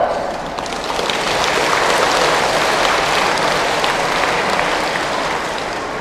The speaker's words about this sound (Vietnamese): các cháu hãy dành một tràng vỗ tay thật lớn